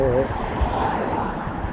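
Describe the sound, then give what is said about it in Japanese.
A steady, continuous wash of sea waves at the shore, blended with low rumbling wind and car traffic noise that sounds louder than the sea, holding an even level throughout. “まあこんな感じで車の音の方が大きく聞こえるでしょうけれどもちょうどね海のなんかこう”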